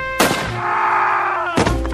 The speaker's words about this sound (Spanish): Tiroteo